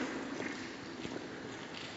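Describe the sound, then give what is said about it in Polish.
Soft, faint footsteps walk at an even pace, about 50 steps, through a tunnel corridor inside a mountain, over a steady background hiss, with a couple of slightly clearer steps partway through and no one talking. “Ruszyłam do 50 kroków i znowu mamy tutaj skrzyżowanie.”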